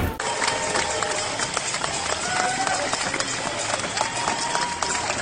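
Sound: street crowd applause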